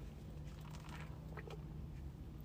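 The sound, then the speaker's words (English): A quiet sip of coffee from a cup: a few soft wet slurping sounds over about a second, against a steady low hum with no talking. “I have some overpriced coffee right here, and I'm sipping.”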